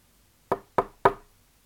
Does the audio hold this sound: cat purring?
no